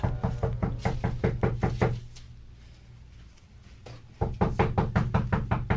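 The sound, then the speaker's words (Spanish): Rapid knocking by three friends on a wooden house door that stands ajar, at half past seven in the evening: a quick run of about seven sharp raps, a pause, then another similar burst of knocks, loud with no voices. “Fue así como aquellos tres amigos tocaron la puerta de la casa que estaba entreabierta.”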